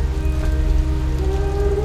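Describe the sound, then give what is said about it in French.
A steady, dense roar of storm rain and wind at the rock of Clipperton fills the whole stretch, heavy and continuous, with a deep rumbling undertone and faint sustained whistling tones from the wind rushing into the rock's vaults and crevices. No one speaks. “Clipperton chante dans la tempête.”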